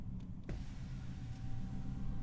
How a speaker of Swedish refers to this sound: Och nu kommer det en sportbil som låter ute på helvete här ute.